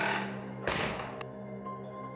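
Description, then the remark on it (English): A heavy bar door swings shut with one solid bang as a woman goes out, followed by a brief click as it settles, over a low steady hum. No voices. “The heavy door swung shut behind her with a slight bang.”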